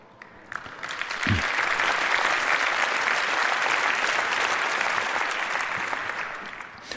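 An audience breaks into sustained applause, a dense, steady wash of clapping that swells quickly and holds at full strength for several seconds before easing slightly toward the end.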